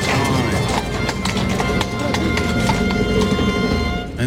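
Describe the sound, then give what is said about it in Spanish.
The horse by the gate at a bullfight clip-clops its hooves in an uneven series of sharp knocks, set against a dense, steady background of crowd noise and murmuring voices. “el caballo de la puerta.”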